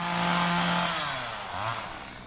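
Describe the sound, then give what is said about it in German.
A chainsaw drones steadily at high revs in a garden near a train station on a very hot day, as two older men cut long wooden beams; its pitch dips and rises briefly near the end as the engine labors, with no voices present. “Die Neugierde wird aber erst geweckt, als ich bei näherem Hinhören das Geräusch einer Motorsäge aus einem der Gärten vernehme.”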